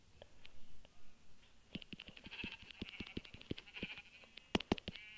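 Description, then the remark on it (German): Three video-game sheep bleat together over a rapid series of sharp clicks and taps that build up in the second half, with a brief bright burst near the end. No one speaks. “Ja, das sind gleich drei Schafe auf einem Haufen.”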